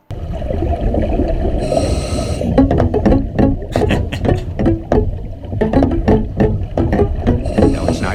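Muffled piano notes ring out in a loose, uneven melody beneath a thick, rumbling underwater wash, with bubbling and gurgling throughout and no voices; a pianist plays a piano that sits underwater on the bottom of the ocean.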